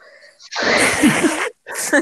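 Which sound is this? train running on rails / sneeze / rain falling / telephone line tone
sneeze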